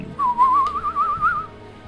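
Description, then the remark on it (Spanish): A person imitates the hooting, ululating howl of the Black Spy Dancers tribe with a single whistled note that holds a steady mid-high pitch and wobbles quickly up and down for just over a second, with no talking. “Usted dice que el, el aullido de los de los Black Spy Dancers es así como un ulular, o sea”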